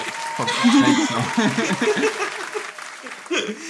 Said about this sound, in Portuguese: Sim, palmas para Mick Schumacher. Palmas para Mick Schumacher. Bota sonzinho de palminha aí